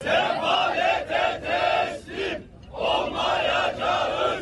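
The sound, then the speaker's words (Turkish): A crowd of protesters chants slogans in unison outdoors in front of the Söğütlü Çeşme metrobus stop in Kadıköy, Istanbul, Turkey, protesting recent tax hikes; loud rhythmic bursts of shouted phrases with a brief pause midway before the chanting resumes. “Sol Parti İstanbul İl Örgütü İstanbul Kadıköy'deki Söğütlü Çeşme metrobüs durağı önünden ses yükseltti.”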